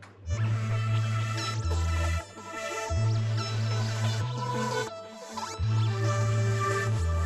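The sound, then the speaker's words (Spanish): A loud, dense passage processed with a device's Chrome Modulation cross-modulation effect: thick droning low tones shift in blocky steps beneath buzzy, metallic, warbling overtones, with brief dips between sections and no voices. “Con la Chrome Modulation suena así.”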